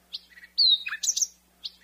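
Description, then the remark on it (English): A big bird calls in a quick series of bright chirps and descending whistled notes, clear, with short pauses between phrases and no voices. “Isn't that peaceful? Oh, it's so great. That is a big bird.”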